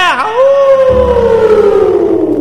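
A long, loud howl rises sharply, then holds and slowly slides downward in pitch, sounding like a wolf. A low rumble sits beneath it, and nobody speaks.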